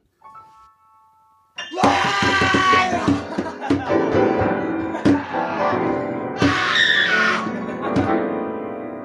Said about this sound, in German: Aber wir durften da ausstellen und in dem einen Raum haben wir dann unsere eigene Musikrichtung gezeigt. Brülljazz hieß die. Das klang so.